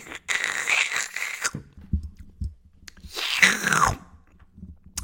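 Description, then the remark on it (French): Two loud, hissing slurps of hot herbal tea, drunk by a woman sorting papers in an office, each lasting about a second and separated by a short pause with faint low rumbling between them, with no one speaking. “Et tu l'entends boire sa tisane.”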